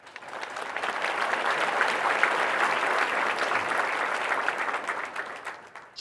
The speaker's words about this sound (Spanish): Un aplauso gigante para los tres.